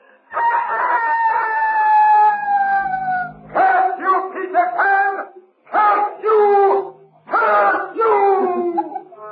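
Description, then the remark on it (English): A loud voice lets out Peter Pan's long, taunting rooster-like crow of victory from the shore, followed by several shorter, warbling bursts of crowing in quick succession, a triumphant cock-a-doodle cry imitated by a person. “And from the shore came Peter Pan's taunting cry of victory.”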